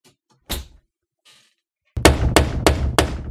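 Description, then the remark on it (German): A single heavy thud of a door shutting, followed after a short pause by a run of four or five loud, rapid bangs, with no voices. “Nee, Rafa, mach die Tür bitte einfach lieber zu”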